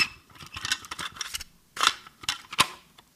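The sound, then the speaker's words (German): Crinkly plastic rustling and sharp little clicks as a cassette tape is unwrapped from its packaging, in several quick bursts with a brief pause midway, with no voices. “Es ist eine Kassette, die ausgepackt wird.”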